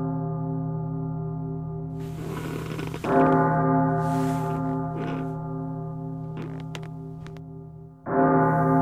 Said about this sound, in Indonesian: Kok tiba-tiba ada bunyi lonceng jam tengah malam gini?